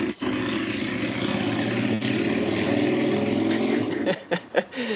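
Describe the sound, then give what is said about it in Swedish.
A motorcycle, probably a Harley-Davidson, roars loudly and steadily with a deep, rumbling engine drone, then a few sharp revving bursts punctuate the final second. No one speaks. “det var någon som hade en motorcykel som körde genom vardagsrummet.”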